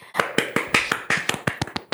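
Hands clap in a quick, slightly uneven run, roughly a dozen sharp, crisp smacks packed into two seconds at a moderate level, with no voices.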